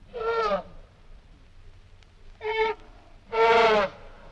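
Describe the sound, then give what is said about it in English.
An elephant trumpets three times, brassy harmonic blasts with short gaps, the last the longest and loudest, heard alone against a quiet background. “or an elephant.”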